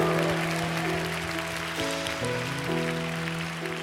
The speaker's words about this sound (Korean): 우리 하나님께 감사와 영광의 박수 올려드립시다. 할렐루야